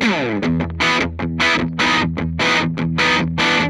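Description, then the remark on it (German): A heavily distorted electric guitar plays a chugging riff through an amp, recorded with a straight, on-axis microphone, bright, with sustained power chords broken by short palm-muted stabs in a steady rhythm. “Wir hören einfach mal eben kurz erst nur das gerade an.”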